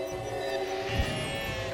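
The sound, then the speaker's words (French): A sheep lets out a long, wavering bleat that fills the whole moment, fairly loud, with no voices around it. “Je dois ramener ce mouton à sa famille.”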